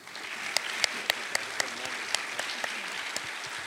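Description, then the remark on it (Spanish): A crowd applauds steadily to welcome a new family invited to the front, a dense wash of many hands clapping with a few sharper, louder claps standing out at irregular moments throughout. “Así que de una forma muy dramática, vamos a invitar a nuestra nueva familia que pueda pasar aquí al frente y que lo recibamos con un fuerte aplauso.”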